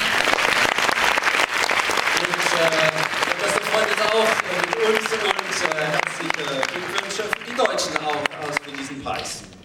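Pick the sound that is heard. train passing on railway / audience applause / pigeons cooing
audience applause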